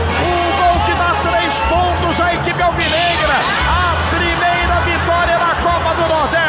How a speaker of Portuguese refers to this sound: Samuel Xavier, apareceu como atacante e bateu de pé na direita, explode a torcida alvinegra, Samuca, Samuel Xavier faz um gol para tranquilidade.